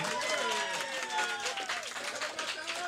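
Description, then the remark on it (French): A crowd applauds steadily throughout, a dense crackle of many hands clapping at once, with voices calling out and talking over the clapping. “écoute, vraiment, le monde applaudit. Applaudissez-la, c'est une bonne idée.”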